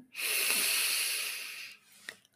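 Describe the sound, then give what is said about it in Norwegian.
A long, steady inhale drawn in through the nose during a guided meditation breathing exercise, a soft airy hiss lasting over a second and a half, followed by quiet and a faint click. “Inn med nesa.”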